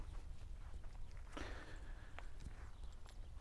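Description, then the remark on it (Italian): Quiet outdoor footsteps of a person walking across a grain field in spring, crunching steadily through grass or rough ground in a soft irregular rhythm, with faint background noise and no one talking. “Sto passeggiando come faccio da un po' di tempo a questa parte”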